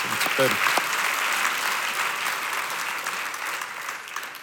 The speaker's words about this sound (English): That was a great time to clap.